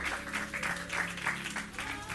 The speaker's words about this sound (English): Come on, clap those hands if you can and just bless the name of our God.